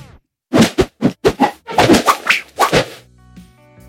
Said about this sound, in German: Ein sogenannter Swoosh wird dann verwendet, wenn etwas schnell an einem vorbei düst oder bei Kameraschwenks. Also kommt es ganz klar auf Bewegung an.